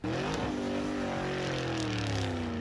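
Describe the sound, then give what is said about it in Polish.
A car engine drones loudly and steadily, its tone sliding slowly lower as Grzegorz Lato drives the car away. No one speaks. “i Grzegorz Lato jak boss odjeżdża dalej.”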